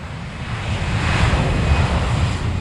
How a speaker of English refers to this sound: jet taking off is around 140 decibels.